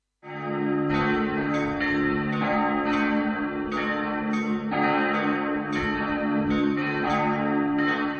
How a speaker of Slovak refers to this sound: Dokázali by ste na základe zvonov spoznať, odkiaľ pochádzajú? Takto znejú zvony v kostole na nebo vzatia Panny Márie v Pezinku.